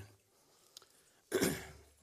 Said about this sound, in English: I think several folks battling this junk going on around, so just pray for me on that. Trying not trying to cough in your ear too much uh, today.